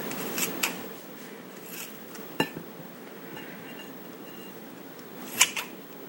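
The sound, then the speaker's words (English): Scissors snipping through tough meat gristle while giving meat a final trim before pressure cooking: a few sharp, crunchy cuts come in small pairs spaced several seconds apart, over a steady low background hiss with no talking. “You can hear it's a little harder to cut.”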